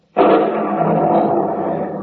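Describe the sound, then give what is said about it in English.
During a heavy rainstorm, a sudden, loud thunderclap breaks in and rolls on as a heavy, sustained roaring rumble, barely fading over two seconds. No voices are heard. “Listen to that. Bet we've had ten inches of rain in this storm.”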